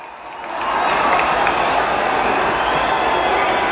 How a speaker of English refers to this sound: Sorry, I'm just waiting for the crowd to disperse its noise.